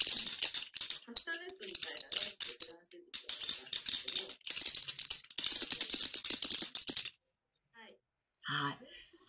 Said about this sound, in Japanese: じゃあこの鳴子は日本風のカスタネット独自の楽器なんですね。